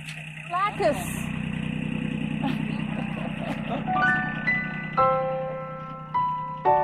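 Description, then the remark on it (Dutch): A tractor engine, used to carry luggage up a mountain, idles with a steady, low rumble throughout while a backpack is loaded in, voices murmur and a few bright electronic tones sound in short steps toward the end. “Wel in de tractor zitten, hè.”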